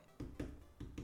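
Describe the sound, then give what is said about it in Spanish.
Four dull, muffled taps, like fingers percussing on a chest to imitate dullness to percussion, come in two close pairs at a steady pace. They are moderately loud, with no talking. “matidez a la percusión.”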